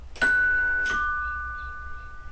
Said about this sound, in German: Ich bin der Handwerker Klaus und ich werde diese Klingel an diesem Haus betätigen.